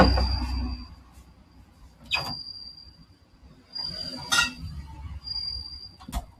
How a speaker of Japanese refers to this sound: 本当にコオロギですかコオロギじゃないごめんなさい、私コオロギって言ってた。スズムシ。スズムシの間違い。ごめんなさい。